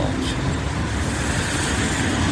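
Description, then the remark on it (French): Steady, loud road noise from a white Peugeot 3008 car driving past on a road, a broad rushing hum that holds level throughout with no clear rise or fade, and no voices. “Non, je sais pas comme voiture. Peugeot 3008 blanc.”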